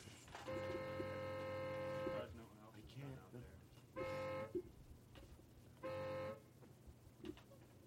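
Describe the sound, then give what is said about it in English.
A woman honks a car horn three times: one long, steady blast lasting about two seconds, then two short beeps after a pause. The honks are loud and clear, with faint muffled voices between them. “Are we sure it's not Morse code that she's beeping?”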